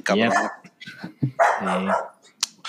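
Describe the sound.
A dog lets out two loud, drawn-out barks about a second apart, with brief bits of human voice and faint noises in between.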